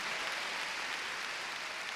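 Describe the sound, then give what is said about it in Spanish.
A crowd applauding steadily, a dense wash of many overlapping hand claps at an even loudness for the full two seconds, with no voices standing out. “A ver, palmas fuertes a nuestro Señor.”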